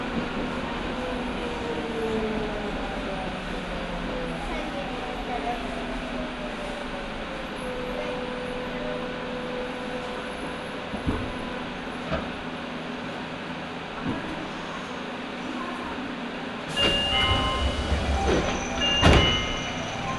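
A Nagoya Municipal Subway Higashiyama Line train in Nagoya, Japan, running from Takabata toward Fujigaoka, rumbles steadily along the rails with a constant low roar and faint whining tones, followed near the end by sharper metallic squeals and clanks as it rattles over the track.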